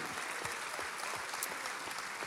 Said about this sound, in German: Und alleine das ist ein Applaus wert unserem Gott im Himmel.